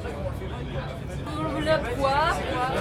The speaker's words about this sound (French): On entend, on, on entend probablement tous les, tous les gens de l'industrie du jeu vidéo en France qui sont en train de parler.